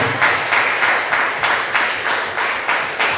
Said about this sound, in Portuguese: Vamos aplaudir o nome do Senhor.